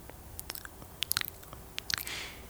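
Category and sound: human body sound, loud chewing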